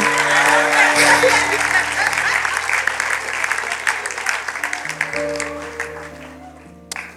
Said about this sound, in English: Thirty percent clapping, seventy percent is paining them.